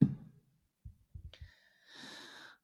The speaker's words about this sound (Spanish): … se está hidratando